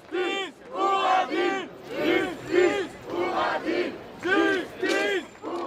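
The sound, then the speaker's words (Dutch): A protesting crowd in the street chants in unison, loud rhythmic bursts of many raised voices repeating a slogan in steady, pulsing beats. “Mensen komen massaal de straat op om hun verontwaardiging te uiten.”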